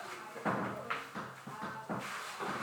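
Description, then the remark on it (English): A door being opened, with a series of soft clunks and rattles from the handle and latch spaced through a couple of seconds over quiet background noise. “Just open the door.”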